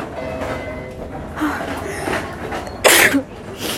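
A single sharp sneeze bursts out near the end, loud, rising over a steady rumbling background hum like a moving train.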